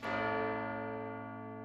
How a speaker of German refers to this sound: Der Glockenturm der Kirche befindet sich direkt neben dem Hotel. Das heißt, jede Stunde Glockenschläge.